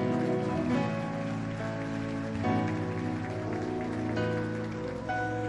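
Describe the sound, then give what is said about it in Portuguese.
A church audience applauds the Lord steadily, a dense, continuous patter of many hands, while sustained musical chords keep playing underneath for the whole stretch. “Diga amém, aplauda o Senhor.”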